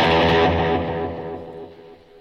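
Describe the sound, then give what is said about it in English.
An electric guitar played through a delay effect in the right channel: a thick, distorted chord rings out loudly and slowly fades over about two seconds, with no voices. “Yeah, there's a there's a special magical delay in your right ear.”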